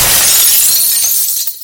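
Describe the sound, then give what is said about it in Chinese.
A large piece of old window glass shakes loose from a wooden window frame at a second-floor stairwell corner and falls to the ground below, shattering into countless small pieces: a loud, bright burst of breaking shards that rattles on for over a second before quickly fading, with no voices. “原本衰败不全的玻璃震颤了一下，有一大块直接就摔到楼下”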